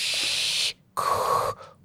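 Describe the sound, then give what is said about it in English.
A voice imitates pink noise, producing a broad, breathy sh-like burst, a short pause, then a second hiss with a faint tonal edge that tapers off. Fairly loud, no speech. “What does pink noise sound like? I think it's a higher pitch.”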